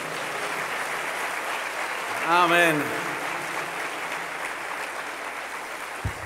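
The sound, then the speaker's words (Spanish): An audience applauds in praise to the Lord. The dense crackle of clapping fills the whole stretch at an even level, while a single voice calls out briefly midway over the applause. “A ver, denle un aplauso de alabanza.”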